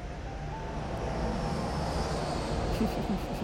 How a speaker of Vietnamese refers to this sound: lại một chiếc máy bay bay qua đó